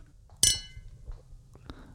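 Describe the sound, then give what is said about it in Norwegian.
A single bright clink of glasses as two people toast rings out sharply and decays over a moment, followed by faint low murmurs and small handling sounds. “Skål, da.”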